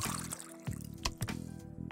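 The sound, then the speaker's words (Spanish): Water pours into an appliance, a steady gurgling trickle broken by a few brief splashes and clunks over about two seconds, with no talking. “Y luego se le pone agua.”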